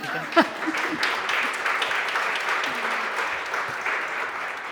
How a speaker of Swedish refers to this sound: Och då tänkte jag, om ni inte redan förstått det här, så här har vi författarna. Så här ser de ut. Ja, en applåd till, det kan de få.